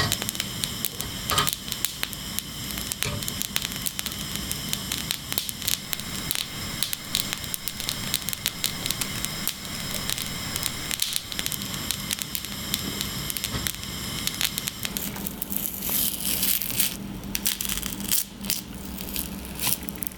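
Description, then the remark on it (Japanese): Dried salmon jerky (sake toba), a traditional local food of Hokkaido, is handled, giving a steady, dense crackling and rustling that runs throughout, with a few sharper crisp snaps toward the end. “今朝は北海道の郷土料理酒とばのいい音それではお聞きください”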